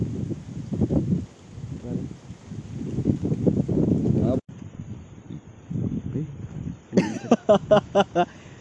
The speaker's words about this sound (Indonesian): Nih guys, di sini banyak angin guys.